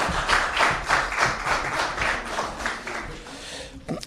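An audience applauds steadily for about four seconds for a group of exceptional people, a dense wash of many hands clapping at a moderately loud level before it quickly dies away.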